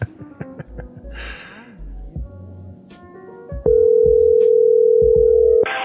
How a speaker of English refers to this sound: please leave your message after the tone.